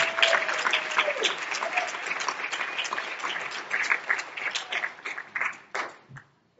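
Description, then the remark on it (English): A church audience claps steadily in warm applause during a Sunday morning service, welcoming back a visiting family. A dense wash of many hands holds strong for several seconds, then thins to scattered claps and fades out. “But would you give the Roths a welcome back, a, a clap on here this morning?”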